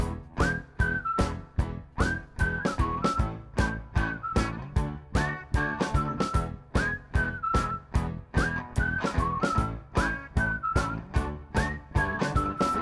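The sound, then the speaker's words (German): A bright, cheerful whistled melody repeats a short bouncy phrase over a steady beat of drums and backing music, loud with no talking. “Ich bin deshalb auch für ein Freudeliedchen.”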